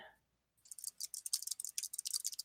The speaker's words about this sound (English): There's her alien typing.